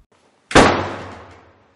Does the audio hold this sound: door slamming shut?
yes